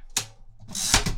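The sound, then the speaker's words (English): A Perkins Brailler's carriage return and line advance to a new line while brailling a Christmas picture: a sharp mechanical clack followed by a longer ratcheting slide, fairly loud with no talking. “More Christmas Pictures with a Perkins Brailler”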